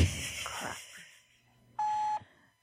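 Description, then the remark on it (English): A single steady electronic beep as a caller hangs up a phone call, sounding clearly for about half a second after some faint rustling noise. No one speaks. “that was it. She just hung up.”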